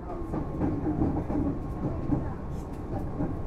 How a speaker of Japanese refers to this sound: ご乗車ありがとうございますこの電車は新木場行きです